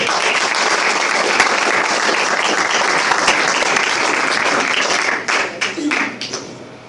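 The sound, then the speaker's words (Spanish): A crowd at an International Network Team event applauds loudly to welcome a speaker, a dense steady roar of many hands clapping for about five seconds, then it thins out into a few scattered claps before fading. “Bueno, pues entonces recibamos con un fuerte aplauso al diamante personal”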